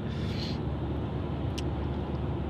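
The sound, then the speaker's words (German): Steady, fairly loud road traffic with a deep engine rumble, a brief hiss early on and a short high click partway through. No one speaks. “Ey, Verkehr. Dieser Typ.”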